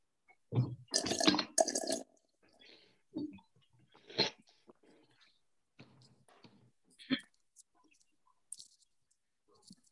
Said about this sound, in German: Erstmal einen Schluck Wasser.